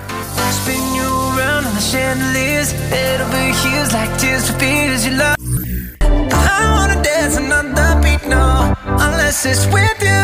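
An upbeat pop dance track plays loudly and steadily on Radio Capella during the show Basta, with a thumping beat, bright synths and a melodic line, pausing briefly midway before the full mix kicks back in.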